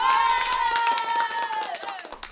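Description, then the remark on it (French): Crowd applause ringing out at 8 pm, as every evening, at the Pelleport crossroads, with many hands clapping in a dense, steady patter and a sustained, high cheer or whistle riding over it, loud for the whole stretch before easing slightly at the end. “Peut-être qu'il fantasme et qu'il imagine que ces applaudissements lui sont destinés.”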